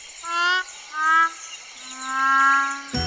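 A little frog named Cookie croaks three times in tonal, harmonic calls: two short ones, then a longer, louder drawn-out croak, followed by a brief sharp click. No one speaks.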